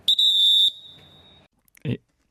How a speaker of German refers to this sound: Oh, ups, jetzt habe ich glaube eine Sekunde zu früh gepfiffen.